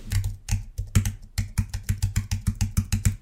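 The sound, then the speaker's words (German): Rapid, steady typewriter key strikes clack away, a brisk run of sharp mechanical taps meant as a journalist typing at a typewriter, with no voices present. “Das soll ein, ein tippender äh, am Schrei an der Schreibmaschine sitzen, da wie die das ja machen, so machen die das ja heutzutage immer noch, ja.”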